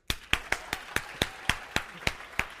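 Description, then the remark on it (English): Audience clapping for the church's Nutley campus, heard as a steady run of about eleven sharp, crisp claps, evenly spaced and fairly loud, with no voices over them. “Can we all say hello and thumbs up and clap for our friends, the Nutters?”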